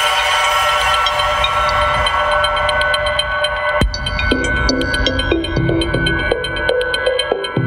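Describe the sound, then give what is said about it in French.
A reverb effect demo: a dense, washed-out sustained texture gives way to a sharp hit, then repeating pulsing tones ring out with long, smeared reverberant tails. No one speaks. “Et euh, avec ça, on peut, euh, on peut à peu près mettre n'importe quel type de reverb sur n'importe quoi.”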